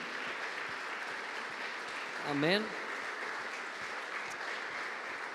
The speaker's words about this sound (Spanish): Le vamos a dar un aplauso a Dios fuerte. Amén.